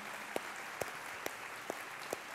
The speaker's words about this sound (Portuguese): Você pode dar uma salva de palmas a Jesus.